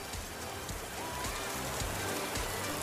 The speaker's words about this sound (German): du, ich glaube, um sich den Duft von Regen vorstellen zu können, und ich weiß genau, was du meinst, brauchen wir erstmal Regen. Also Regen ein.